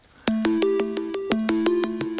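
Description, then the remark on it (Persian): A telephone rings repeatedly with an electronic ringtone: steady beeping tones stepping between a few pitches, broken by regular sharp clicks, loud with no voices. “به این تلفن هم هی زنگ آره. میزنه این وسط”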